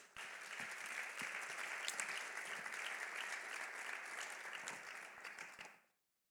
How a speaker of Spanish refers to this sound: Dámosle un aplauso a la palabra de Dios.